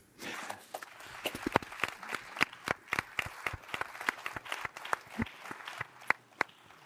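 Audience applause: many sharp, irregular claps from a modest group, fairly steady for several seconds, with a few louder individual claps standing out over the patter.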